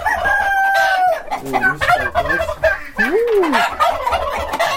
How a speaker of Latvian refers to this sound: Tītari!